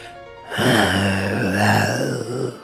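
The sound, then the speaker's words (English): A deep, sustained growl rises after a brief quiet moment and rumbles steadily for about two seconds, fairly loud, with no talking. “When he finally read out the sentence, followed by a deep growl.”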